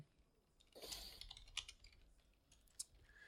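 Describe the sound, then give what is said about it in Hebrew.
Keys clatter on a computer keyboard in a quick flurry, then a few scattered sharper taps, fairly soft against quiet surroundings with no voices, as a message is typed in the "New Episodes" Discord channel announcing a live broadcast. “בסדר גמור, אה, בוא נכתוב בערוץ של אה, New Episodes שאנחנו בשידור חי.”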